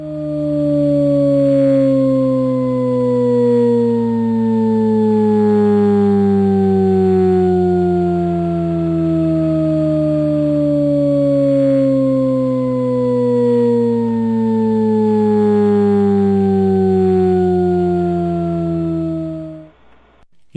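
A continuous, steadily descending Shepard tone: stacked harmonic tones glide downward in pitch without end, creating the illusion of an endlessly falling sound, loud and sustained for about twenty seconds with no voices.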